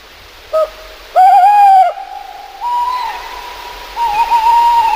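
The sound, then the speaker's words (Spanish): An owl, a nocturnal bird of prey, calls in a dark forest in Spain in a series of clear, tonal hoots: a short note, then a longer, stronger one, followed by sustained, wavering notes with no talking. “Estamos caminando por un bosque de toda España, porque es muy ubicua este, este, este ave nocturna, esta rapa nocturna, pero y de repente escuchamos este sonido.”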